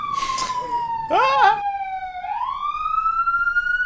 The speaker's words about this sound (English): You get some police sirens in there, yeah.